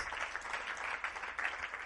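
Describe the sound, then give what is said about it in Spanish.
An audience applauds the Lord together, a dense, steady wash of many hands clapping that holds evenly for about two seconds without a break, with no voices standing out. “Den un aplauso al Señor, por eso, eso es tremendo.”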